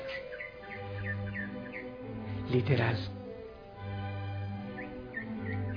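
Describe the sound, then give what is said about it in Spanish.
A bird sings outside at daybreak in short, repeated chirps, fairly faint, over a steady low hum, with a brief louder rustle or clatter partway through as a door is opened. “A ver, vas a escuchar la puerta, sí, es que quiero ver si hay concierto afuera.”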